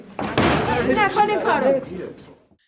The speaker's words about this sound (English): and he bangs his head against the door